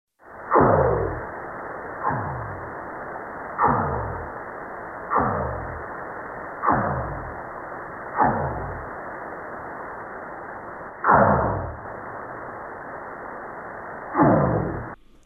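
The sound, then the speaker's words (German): North Pacific right whale male song: a series of about eight sharp, loud pulses, each trailing off in a falling, zapping sweep, repeated at uneven intervals over a steady hiss of underwater noise. “Jetzt wurden zum ersten Mal diese Gesänge eines männlichen pazifischen Nordkapers oder nordpazifischen Glattwals aufgenommen und wir hören mal rein.”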